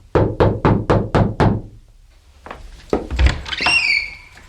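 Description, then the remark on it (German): Six firm, evenly spaced knocks on the door of room 108 on the first floor of a guesthouse, loud, followed after a short pause by clunking handling sounds and a faint high squeak, like the door being opened. “begab er sich in den ersten Stock und blieb vor der Zimmertür 108 stehen. Er atmete einmal tief ein und klopfte entschlossen an.”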